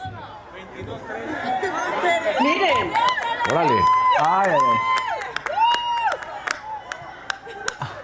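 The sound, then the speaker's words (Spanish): In the Chamber of Deputies, a crowd howls and whoops in long rising and falling wails over loud, busy chatter, with sharp scattered claps and applause for PAN deputy Tere Castel breaking through. A voice speaks briefly at the start. “Pero si escuchamos con atención, primero, como al segundo 30, se escuchan aullidos y que le aplauden algo a la diputada del PAN, a Tere Castel.”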